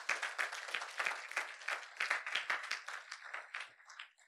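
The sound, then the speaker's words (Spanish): A church audience applauds God steadily, many hands clapping together in a dense, sustained wash of claps that gradually thins and fades toward the end. “Cuando dan, cuando dan un fuerte aplauso a nuestro Dios.”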